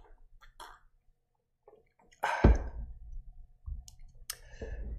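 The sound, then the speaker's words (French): Quiet mouth clicks, then a brief splashy burst and low rumbling as someone takes a small sip of water and swallows. No one speaks. “Alors aujourd'hui, je voulais, attendre une petite seconde, je vais prendre une petite gorgée d'eau”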